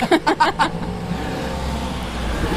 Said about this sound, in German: während dieser LKW an uns vorbei donnert. Ja. Das ist wirklich eine tolle Atmo. Ich glaube, es ist die verkehrslastigste Folge, die wir jemals aufgenommen haben.